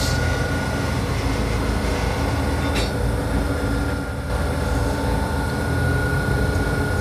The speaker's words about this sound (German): Und jetzt, das was ihr da hört, ist der Nachbarzug, das bin nicht ich.